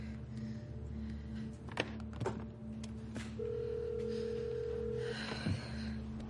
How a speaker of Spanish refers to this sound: En el hangar, el teléfono suena. El profesor está sentado en el centro de control junto al teléfono. Raquel espera impaciente a que atienda la llamada.